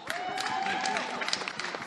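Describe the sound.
An audience claps steadily throughout, a dense patter of many hands at a fairly even level, with crowd voices and a brief whoop mixed into the applause.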